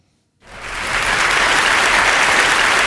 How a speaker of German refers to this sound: Sehr gut. Mega. Uhuhu. Kleiner Applaus an der Stelle.